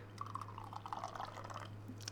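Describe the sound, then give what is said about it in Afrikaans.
Communion wine trickles and gurgles as it is poured into a cup during a church communion service, in one steady, fairly quiet stream lasting about two seconds, with a low electrical hum underneath. “Die wyn wat ons skink en wat ons drink”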